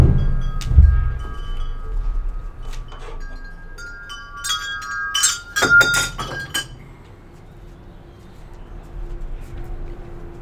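Wind chimes tinkling in the breeze: bright, ringing tones hang in the air, with a busier flurry of clinks midway, over a low rumble of wind.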